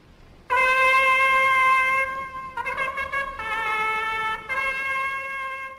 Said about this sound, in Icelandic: the copper trumpet.